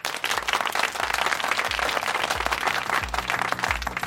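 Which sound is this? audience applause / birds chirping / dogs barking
audience applause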